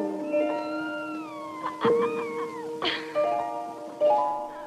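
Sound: kitten meowing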